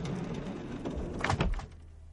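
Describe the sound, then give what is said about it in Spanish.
A door is pushed shut with a short rumbling slide and a soft thud, after which all falls quiet. “Cierra la puerta.”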